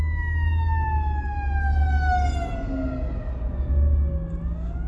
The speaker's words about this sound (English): Sorry, fire truck just went by.